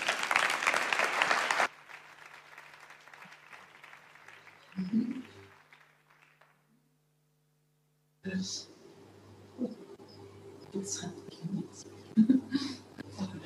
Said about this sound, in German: Gebt doch mal den Paraguayanern einen ganz kräftigen Applaus.